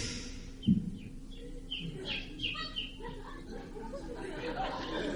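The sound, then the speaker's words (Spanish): A voice imitates a bird, jokingly called a chicken, with a run of short, chirpy squawks and warbles, fairly loud, with a sharp thump near the start and murmuring chatter behind. “Ese es un pollo, cabrón.”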